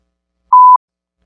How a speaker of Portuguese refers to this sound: Nos episódios passados, quando eu tava colocando o bip, é, eu tava colocando depois do encerramento né?